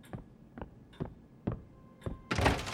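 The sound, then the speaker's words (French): A series of five dull, evenly spaced thuds, then the door of a lawyer's office bursts open with a loud, sudden crash that rings on briefly. No one speaks. “Maurizio tourne la tête vers la porte du bureau de son avocat, qui s'ouvre brusquement.”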